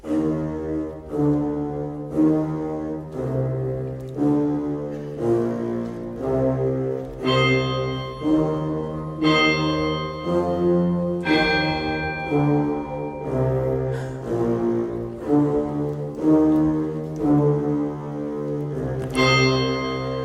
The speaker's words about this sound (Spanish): esa es la tuba, un instrumento bien grave. y podemos escuchar el audio eh, de la tuba solo